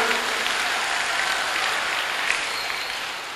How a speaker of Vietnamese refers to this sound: xin các cháu hãy dành tràng pháo tay để biết cảm ơn